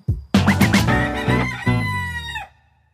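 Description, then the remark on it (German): A rooster crows loudly in one long, drawn-out call, opening with a few quick choppy notes before a sustained, strained tone that cuts off abruptly. “Dann grüß die Hühner von uns”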